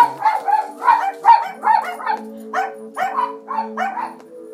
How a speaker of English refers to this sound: Oh, it's the dog.